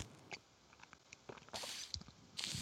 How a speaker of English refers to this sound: This is our ASMR section where we drink and smoke, but you can hear it makes you calm down, makes you feel really, really relaxed